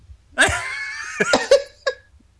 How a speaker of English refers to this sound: she has a cat. oh, that's what it was.